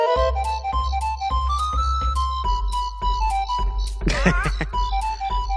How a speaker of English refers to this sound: we'll go to break with the sounds of Click Clock Wood from Banjo oh, Kazooie. another great track.